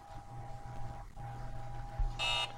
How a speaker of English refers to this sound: so can you stop buzzing me?